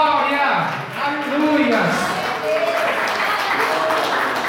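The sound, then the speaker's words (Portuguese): An audience applauding steadily to glorify God during Portuguese-language worship, a dense continuous patter of many hands clapping, with raised voices and shouting mixed in over the top throughout. “Diga graças a Deus, desocupa as mãos, queridos, e aplauda Ele, glorifique o nome dEle nesse lugar.”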